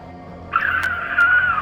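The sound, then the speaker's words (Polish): A single high-pitched, panicked scream from a person rises abruptly and holds steady for about a second, loud, with a couple of sharp knocks in the background. “Ja dochodzę do siebie i nie wiem, co ja tu robię i zaczynam krzyczeć.”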